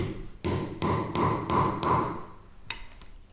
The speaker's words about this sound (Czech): Je tam. Já vlastně Teďka jsem. Vlastně boucháme ty iniciály. Tak, je to tam.